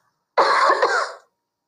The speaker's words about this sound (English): I'm gonna cough, excuse me.